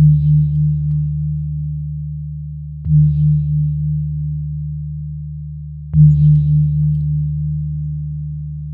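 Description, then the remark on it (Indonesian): A gong is struck three times at steady intervals by a Komodo dragon's tail, by accident, each hit blooming into a deep, humming low tone that rings on and slowly fades before the next strike. “Tiba-tiba ekor komodo secara tak sengaja mengenai gong.”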